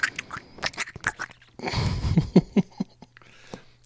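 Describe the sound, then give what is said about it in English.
Wet chewing of food right on the microphone: irregular smacks and crunches, with a denser, noisier burst of mastication in the middle before sparse mouth clicks return. No one speaks. “I hate when I'm on I'm on a microphone with somebody or a telephone and they're chewing food.”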